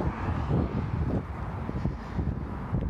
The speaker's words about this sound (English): So forgive the traffic noise and the wind, but I'm out in the I'm out in the wilderness.